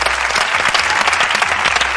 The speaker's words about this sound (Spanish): Un aplauso para todos esos grupos que, ¿verdad? Que nunca llegan a nada.